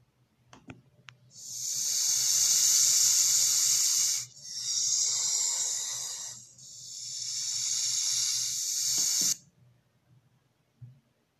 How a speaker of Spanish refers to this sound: Pero no hubo grito en la trompa del elefante. Solo salió un silbido que se escuchaba así.